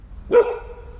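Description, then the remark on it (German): A seven-month-old Golden Doodle puppy with soft white fur gives one short, sharp bark, its tone trailing off briefly afterward, with only faint background noise and no talking around it. “ist ein Golden Doodle, sieben Monate alt, hat weiches, weißes Fell, ist neugierig, gechillt, verspielt und hat keine Angst vor Menschen.”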